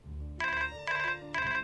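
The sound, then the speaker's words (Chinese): A mobile phone lying to one side suddenly rings in three bright, evenly spaced electronic bursts, each a steady harmonic tone lasting about a third of a second, over a low constant hum with no voices. “高原正考虑要不要再加些光线从窗口射进来的效果时，放在一旁的手机突然响了。”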